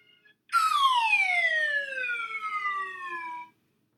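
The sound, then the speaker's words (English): A single Swanee whistle (slide whistle) note glides steadily downward in pitch for about three seconds, loud, ending abruptly with no voices around it. “I think it was definitely, I think it was definitely the uh, the Swanee whistle there uh, causing uh, causing the uh, issues here, and um, you know, yeah, uh, it wasn't the axe chopping.”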